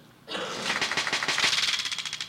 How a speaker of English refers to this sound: What was that? Window shade. He's fixing it.